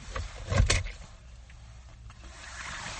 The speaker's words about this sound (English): Let me pull the zipper down. It's getting a little hot.